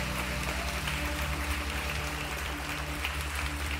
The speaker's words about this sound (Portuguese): Vamos dar uma linda salva de palmas para Jesus.